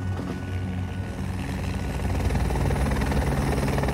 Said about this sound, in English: this chopper and that sound brings with it the promise of survival. I think those guys will run from that.